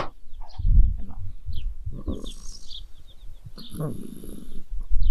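A baby with a stuffy nose snores in a pram in a series of soft, snuffly breaths, with an irregular rhythm of several nasal snores and quieter sniffles in between.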